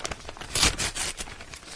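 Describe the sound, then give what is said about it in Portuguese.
Crinkling and tearing of wrapping paper as a gift-wrapped deck of playing cards is unwrapped, a few quick rustling bursts with one louder rip in the middle, no voices. “Comprei-o e mandei entregar aí. Chega em breve, very soon. Até já chegou, só não ah. abri ainda. Mas peraí, vou abrir agora.”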